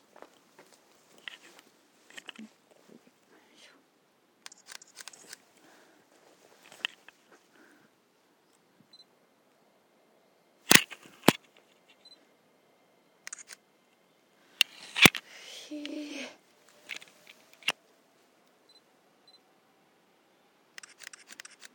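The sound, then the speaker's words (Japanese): Sharp camera shutter clicks go off intermittently as a person takes photos, a few sharp loud snaps standing out among quieter clicks and faint handling noises, with no talking, in a quiet outdoor setting. “私がシャッターを押してる音も全部入ってもうてるってことでしょう”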